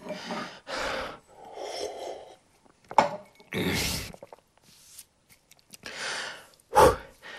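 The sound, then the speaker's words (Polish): Heavy, ragged breathing: a run of loud, uneven huffs and gasps as someone struggles to catch their breath, with short pauses between. No talking. “Uff, dajcie mi złapać oddech.”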